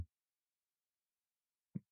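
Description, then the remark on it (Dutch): Two short, low creaks from a wooden table as the person sitting at it moves while talking, about a second and a half apart, with near silence between them and no voices. “kraakt een beetje en dat ik zit te bewegen met praat, zoals je dat hoort.”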